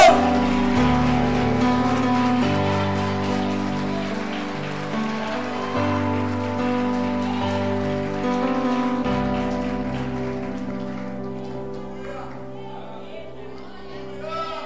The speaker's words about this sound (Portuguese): Vamos lá! Um, dois, três! Vamos aplaudir o Senhor que dá jeito em tudo.